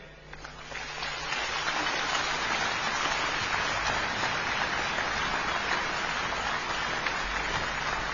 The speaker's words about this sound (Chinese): 伴随着观众热情的掌声，著名指挥家叶聪先生上台。